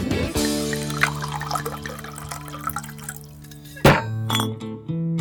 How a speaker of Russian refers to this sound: Считается, что в советский граненый стакан 1943 года выпуска помещалась ровно треть бутылки водки. Поговаривают, самые опытные могли на слух разлить бутылку поровну. 7-8 булек на стакан.